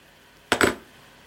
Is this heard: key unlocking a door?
yes